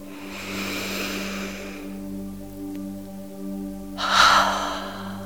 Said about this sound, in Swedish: Och ta ett sånt där riktigt, riktigt djupt andetag. Och sucka ut. En gång till, andas in och sträck på dig. Andas ut, släpp ner axlar.